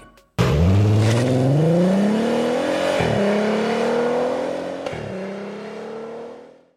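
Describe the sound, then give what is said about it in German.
An Artega GT sports car engine roars as it accelerates hard, its pitch climbing steadily with two brief gear-shift dips, loud with no voices. “Und ziemlich gut klingt auch der Artega GT.”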